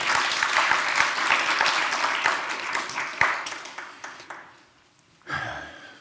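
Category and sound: crowd, audience applause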